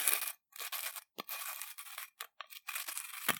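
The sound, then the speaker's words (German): A bottle cap being twisted open in a series of short, gritty scraping bursts separated by brief pauses, a dry crackling grind with no voices. “Also, aufschrauben. Aufschrauben, hier wieder ASMR.”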